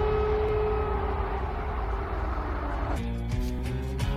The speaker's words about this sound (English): So this, this is air raids. The air raids, the sirens going off from Kiev.